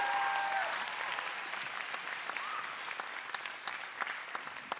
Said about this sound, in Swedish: Vad sa jag om applåden? Om en applåderar, alla applåderar bror!